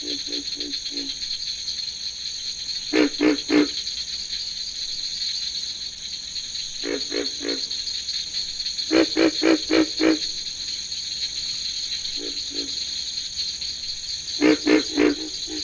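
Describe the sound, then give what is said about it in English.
Pig frogs (Rana grylio), which have internal vocal sacs, grunt in short, low bursts of three or four, repeating every few seconds over a steady, high-pitched insect chorus; nobody speaks. “Tree frog voices are very different in quality from those of the pig frog, Rana grylio, which has internal vocal sacs.”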